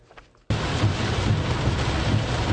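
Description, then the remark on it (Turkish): After a brief quiet moment, a dense, steady roar of heavy rain abruptly starts and continues loudly and evenly, a constant downpour hiss with deep rumbling underneath, falling on a march by lawyers of Turkish bar associations, including the Giresun Bar Association. “Şiddetli yağmur altında yürüyüşünü elinde şemsiyesi, üstünde cübbesiyle sürdüren Giresun Barosu Başkanı”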